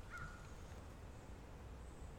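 Faint birdsong in the early morning, a few thin calls and whistles drifting over a low, steady background hum, with no one speaking.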